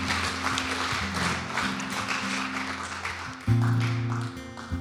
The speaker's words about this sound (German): Lass uns den Leuten einen Applaus geben, die das das erste Mal gebetet haben.